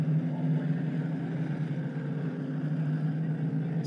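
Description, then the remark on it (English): Race cars creep past under a yellow caution flag on night three of the World Series, their engines a steady, low idling drone that holds evenly throughout with no sharp revs or bursts, continuous. “Field creeping by here under this yellow flag.”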